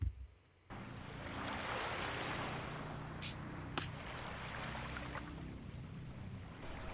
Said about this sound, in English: Waves slowly break on the shore Water rushing, cleansing, releasing.